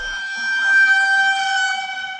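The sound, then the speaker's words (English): A dramatic sound effect from the TV cooking competition show Hell's Kitchen, played from a phone: a single loud, sustained horn-like blast with a bright, buzzy tone that swells slightly and holds steady for about two seconds, with no one talking. “I want to play a sound effect for you. There's a lot of these in the a film.”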